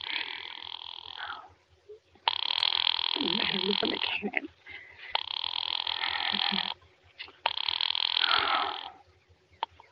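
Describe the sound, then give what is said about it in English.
A telephone rings in four long, buzzing bursts separated by brief pauses, steady and fairly loud, with a faint low hum underneath and no talking, as a call is placed to the police department. “Do you have to dial? Can't you ring them direct? Ringing the police department.”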